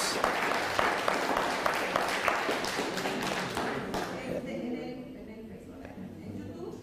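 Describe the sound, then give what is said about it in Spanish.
A burst of dense, crackling applause from many hands, given as a greeting to viewers from Argentina, lasts about four seconds. Then the clapping thins out and a voice starts speaking over the fading sound. “Un fuerte aplauso a mis armados argentinos.”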